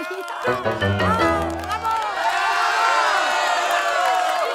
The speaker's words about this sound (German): Das fröhliche Gelächter inner und außerhalb des Baumgartens verwandelte sich in ein jubelndes Beifallrufen.